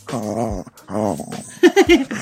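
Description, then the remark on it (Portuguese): A dog, upset at not being allowed outside to bark, whimpers in two drawn-out, wavering whines, then breaks into a few short, throaty growling grumbles. No one speaks. “é muito bom quando ele fica bolado, que não pode mais lá fora latir ai, ai.”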